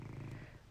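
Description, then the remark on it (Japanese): A cat purrs loudly right beside the speaker, who is lying in a futon, a steady low rumbling buzz with a soft rhythmic pulse, filling a short moment with no talking. “そんな感じであの猫がすっげえ横でぐるぐる行ってるんでちょっとそろそろしょうがないからお布団から出てね猫の缶詰を開けたいかなと思いますよはい”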